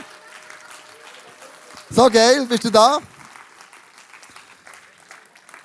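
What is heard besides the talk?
audience applause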